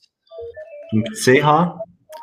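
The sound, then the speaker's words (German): A mobile phone's short electronic ringtone melody of steady stepped tones plays, then a voice cuts in over it, talking or laughing. “Mein Telefon klingelt gerade.”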